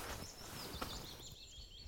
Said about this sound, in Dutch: Kijk, want zie je daar, dat huisje, dat vogelhuisje, ja, ja, ja. dat is de nestkast van een bontvliegvanger. En die bontvliegvanger die zit hier te zingen.